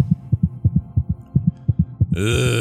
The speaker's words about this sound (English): The second Grinkeeper picks up the key. Oh everyone can hear the heartbeat ringing fast.